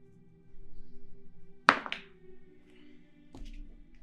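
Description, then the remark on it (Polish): A die is rolled onto a table for a persuasion check in a tabletop role-playing game, landing with a sharp thunk, then a quick second clatter and a faint tap as it settles, over a low steady background hum. No one speaks. “No, no i to jest rzut.”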